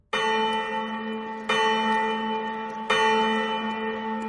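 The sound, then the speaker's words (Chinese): A loud bell rings out three times at steady intervals of about a second and a half in Sculpture Town. Each strike leaves a rich, sustained metallic hum with layered overtones. No one speaks. “猴子警长一把抓起了啄木鸟，刚要走向雕塑镇的警察局，突然一阵响亮的钟声传来。”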